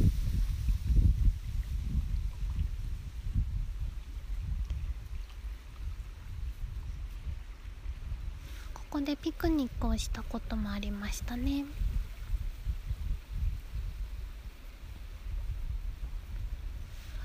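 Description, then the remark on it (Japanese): Steady outdoor wind rumbles low throughout, with soft lake water lapping underneath, at an open spot overlooking Lake Shikaribetsu; a person speaks quietly for a few seconds midway. “BGMは波の音、風の音、鳥の声です。”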